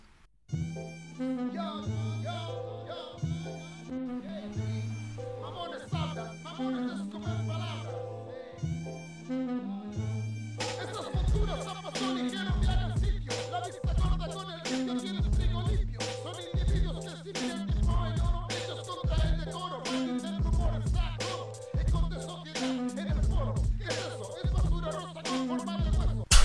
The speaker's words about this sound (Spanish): Voy a poner este tema en mono porque, porque se oye solo por un lado, ¿vale?